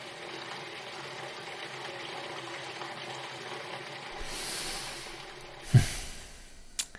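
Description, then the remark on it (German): Steady rushing water fills a dark, flooded cellar, a constant broad hiss that swells slightly midway, with a sharp knock near the end and a fainter one just after. “Für einen Moment hört man nur das Wasser rauschen.”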